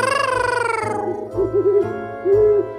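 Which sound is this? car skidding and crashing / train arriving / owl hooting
owl hooting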